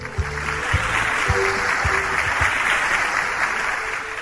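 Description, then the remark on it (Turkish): A group of children clapping together in a steady, dense burst of applause that keeps going for several seconds, with faint rhythmic thumps and a bit of background noise underneath, applauding a correct answer during a children's quiz. “O zaman alkışlayalım.”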